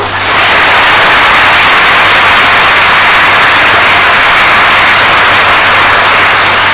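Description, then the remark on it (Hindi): An audience claps together in a loud, dense, steady burst of applause lasting several seconds, with a faint low hum underneath and no voices. “ताली बजाने का मतलब क्या कि तुम्हारे में भी उतना समर्थ परमेश्वर वैसे का वैसा उतने का उतना है”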